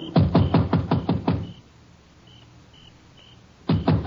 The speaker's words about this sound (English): I left the car on the road and slipped up to the house. It was dark. I knocked.